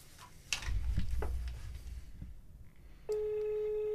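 A few soft clicks and handling noises, then a steady, mid-pitched Norwegian telephone ringing tone starts and holds, the tone of an outgoing call waiting to connect. No one speaks.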